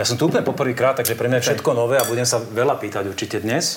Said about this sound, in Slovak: Tak ešte si najprv samozrejme štrngneme na privítanie teda.